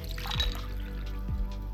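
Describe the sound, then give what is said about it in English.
Mai Tai cocktails being poured: liquid trickles steadily into a glass, with two low glugging swells partway through, and no voices. “I keep pouring Mai Tais, and our tabloid tale starts to cook.”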